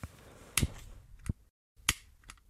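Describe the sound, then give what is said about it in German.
Two sharp clicks of the piezo igniter of a lighter, each followed by a faint softer tick, separated by a brief pause with no talking. “So klingt es, wenn man ein Feuerzeug mit Piezozünder bedient.”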